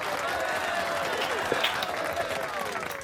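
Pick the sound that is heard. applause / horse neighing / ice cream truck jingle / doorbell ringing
applause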